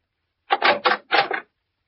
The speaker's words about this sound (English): Well, uh, anyway, I pulled up at the Shady Glade and knocked at the door of cabin number four.